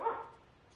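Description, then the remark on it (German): A single short dog bark, a quick sharp yelp that fades out fast, with no other sounds or voices around it. “Silko freute sich sehr darüber und bellte”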